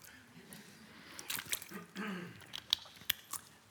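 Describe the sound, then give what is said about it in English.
A preacher taking a water break during a Sunday church sermon: a few soft gulps and swallows followed by small wet mouth clicks, quiet and without any talking. “Water break.”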